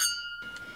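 A single bright clink of glasses touching in a toast, its clear ringing tone hanging briefly before fading into quiet room noise; the drink comes from a bottle made in Liezele, part of Puurs.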